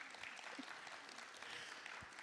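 An audience claps steadily for a couple of seconds, a dense, even patter of many hands with no voices over it, holding at a constant moderate level throughout.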